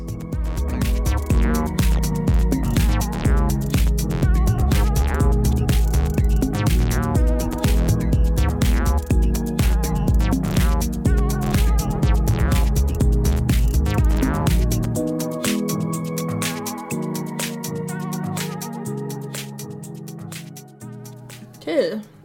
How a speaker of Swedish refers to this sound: Och jag tycker den är väldigt höstig. Lite, drar upp lite höstacid med lite ambienta lager.